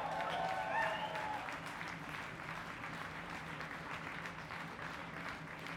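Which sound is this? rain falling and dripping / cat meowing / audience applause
audience applause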